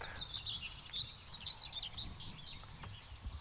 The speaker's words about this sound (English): Anyway, got a sedge warbler got chiff chaff, you got white throat or two, you got black cap,